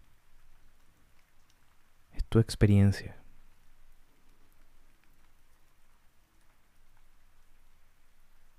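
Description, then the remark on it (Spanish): Steady, soft rain patters on surfaces in a forest throughout, a low continuous hiss in the background, while a calm voice speaks briefly near the start. “Te invito a tener esta imagen, tu bosque, es tu bosque tu lluvia,”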